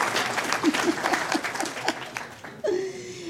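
A crowd applauds steadily for a few seconds, the clapping close and lively, and a single voice lets out a drawn-out cheer as it fades near the end.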